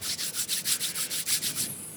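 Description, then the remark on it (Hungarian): Two palms rubbing briskly back and forth, used as a musical instrument, a steady hissing swish repeated about eight times in a quick even rhythm, fairly loud with no voices. “a két összedörzsölt tenyér mellett döntött végül, ami végig nálunk volt, és ez volt a, ez volt a hangszer”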